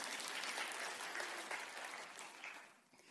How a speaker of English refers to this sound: So if you ever come to Hope, you've got to make sure my congregation claps for me. All right?